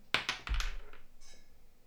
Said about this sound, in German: Ich habe einen Würfel vom Tisch geworfen.